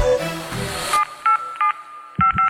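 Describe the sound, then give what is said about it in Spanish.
A quick series of electronic keypad tones as a phone number is dialed, short beeps in uneven bursts after a brief burst of noisy background, clear with no talking. “A ver, marca el teléfono.”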